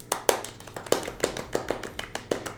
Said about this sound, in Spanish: Entonces quiero darle una bienvenida, con un aplauso no tan fuerte porque luego nos, vuelve nos volvemos locos con el sonido